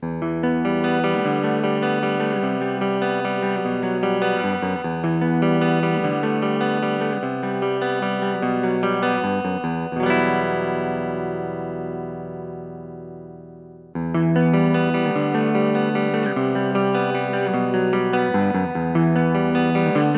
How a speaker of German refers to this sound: erstmal mit einem Clean-Sound. Der kommt jetzt von der Les Paul.